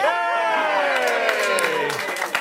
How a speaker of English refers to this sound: Yes, we are clapping it.